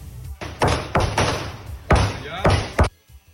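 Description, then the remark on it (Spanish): A burst of about five or six sharp gunshots at irregular intervals, loud and echoing, from a video of a man opening fire without a word in Santo Domingo Este, heard through a somewhat muffled recording with faint background noise between the shots. “Pablo incluso ya tiene el video cuando el individuo le entra a tiros”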